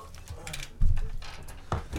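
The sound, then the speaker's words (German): A golden puzzle box cube is turned and clicks: a few sharp ratcheting clicks and a heavier clunk, with short grinding movements in between and no talking. “You solved the box.”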